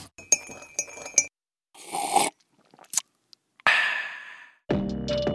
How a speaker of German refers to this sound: Ich stoße jetzt auch mit Tee an, auf euch.